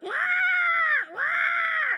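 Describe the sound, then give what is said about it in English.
A person loudly imitates a crow's caw, giving two long, drawn-out harsh calls back to back with a brief dip between them, forceful. “And then they've got the most annoying sound crows, don't they?”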